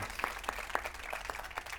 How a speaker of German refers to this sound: Applaus an euch erstmal.